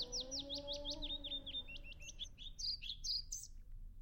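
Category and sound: ambience, old-growth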